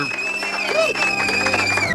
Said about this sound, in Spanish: Los aplausos bien fuerte.